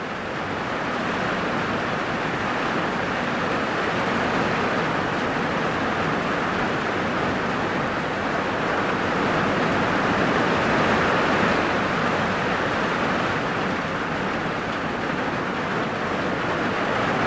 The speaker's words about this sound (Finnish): sellainen bungalow, jonka sisällä mä olin ja se kuulosti täältä. Tuli valtava nopeasti se sadekuuru ja sitten se meni saman tien melkein ohi, että pääsetkö te yhtään tähän tunnelmaan.